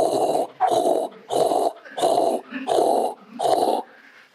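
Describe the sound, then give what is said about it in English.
A voice imitates a pounding heartbeat and rushing blood in the ears: six evenly spaced, breathy growling whooshes in a steady rhythm, fairly loud, with no talking. “That's the sound of your heartbeat and the blood in your ears.”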